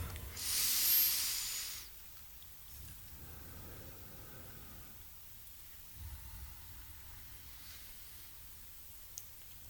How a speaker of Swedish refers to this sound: Ta och blunda och så andas ni tre gånger genom näsan, helt ner i magen.